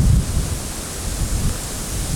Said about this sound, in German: auch langsam furchtbar windig wird. Vor allem windig hier ich im Norden. was die Mikrofone da rausgeholt haben.